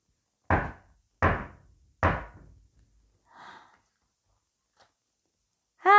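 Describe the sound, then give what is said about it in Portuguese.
Three loud, heavy knocks on a door, evenly spaced, each thudding and quickly fading, followed by quiet and then a voice beginning to speak at the very end. “Abra, abra! Logo, rápido! Somos nós, os três porquinhos! Por favor, senhor coelho, deixe-nos entrar!”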